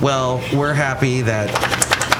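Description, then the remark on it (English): A person talks outside at a cafe, then Basil the dog shakes his head: a quick, loud burst of rapid floppy ear-flapping slaps, about half a dozen in under a second. “He shakes his head and the ears go flapping and it wakes me up.”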